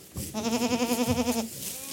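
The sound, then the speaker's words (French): A single Angora goat bleats once, a loud, wavering call lasting about a second, with quiet background noise before and after and no speech. “qui est spécialisée, euh, spécialisée dans la tombe des chèvres angora.”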